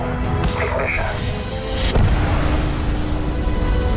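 Rocket main engines of the Constellation ignite at launch into a loud, continuous roaring rumble, with a sharp surge of noise early on and another booming swell about halfway through, deep rumble underneath throughout.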